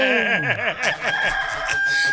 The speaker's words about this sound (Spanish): ¡Gallo!